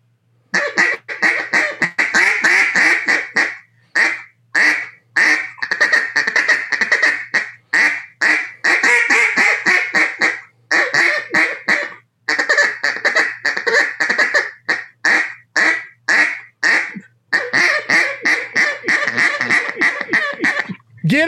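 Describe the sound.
Loud quacking from a duck call, blown in rapid rhythmic bursts and long runs of raspy quacks with brief pauses between sequences, continuing for about twenty seconds with no talking.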